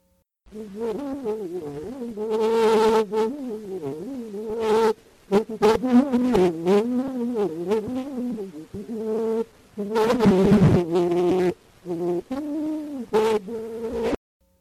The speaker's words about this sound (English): The final one of all probably was a line from the song Vole Petite Abeille, or Fly Little Bee, from a recent French comic opera called La Reine Topaze by Victor Massé.